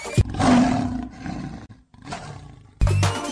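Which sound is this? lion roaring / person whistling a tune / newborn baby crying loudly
lion roaring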